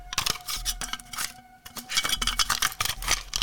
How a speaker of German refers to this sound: Aber ja, es ist eine Kassettenhülle. Das ist, weil die immer so locker waren dann irgendwann. Immer ein bisschen ausgeleiert